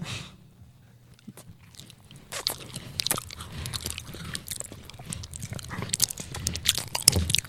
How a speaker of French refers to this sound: Donc on entendait légèrement les bruits de mâchement. C'était assez gênant.